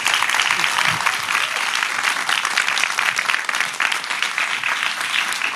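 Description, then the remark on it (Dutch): A large audience applauds steadily to thank the guests, a dense wash of many hands clapping at once, loud and sustained from start to finish with no pauses. “Groot applaus.”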